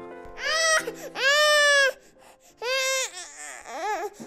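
An infant, one of twins, cries in loud, wailing bursts, about four of them separated by short gasping pauses, the last one breaking into a wavering whimper. There's no talking.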